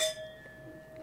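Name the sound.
glasses clinking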